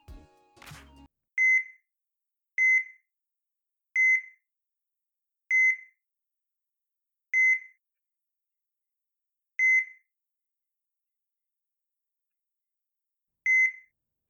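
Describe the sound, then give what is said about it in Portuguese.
Electronic heart monitor beeps as the heart beats ever more slowly until it stops, clear mid-pitched tones with growing gaps between them, slowing from about one per second to long pauses before falling silent after a final beep. “O coração bate cada vez mais devagar até que para e deixa-se de ouvir qualquer pi.”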